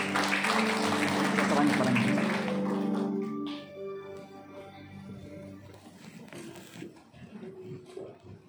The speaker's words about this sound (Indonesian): Tepuk tangan buat Tuhan Yesus.